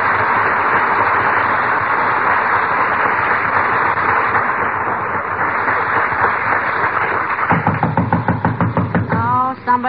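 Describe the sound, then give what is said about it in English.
A quick series of knocks on a door rings out near the end, coming after a stretch of dense, crackly noise on a thin, old-sounding recording, and a voice cuts in just as they finish. “at the door, McGee.”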